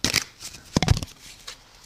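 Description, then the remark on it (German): A deck of mindfulness cards being shuffled, some cards falling out: quick papery riffles and flutters, with a louder burst of rapid slaps in the middle, then softer rustling that trails off, with no voices. “Ich mische jetzt mal die Karten.”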